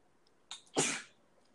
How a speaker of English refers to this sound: So, bless you.